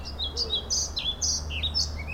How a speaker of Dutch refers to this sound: Want dat is een vogel die je vanaf, nou zeg maar medio eind april kan eh, terugverwachten in Nederland. En die je dan vooral kan horen wanneer je in het oosten van het land verblijft. En dan het liefst in een uh, half open bos bijvoorbeeld